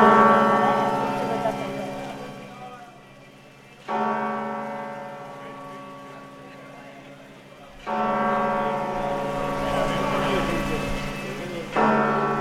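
Large bells of the cathedral of Santiago toll slowly for an arrival, about one deep, resonant stroke every four seconds, each ringing loudly and decaying into a long hum over faint background bustle.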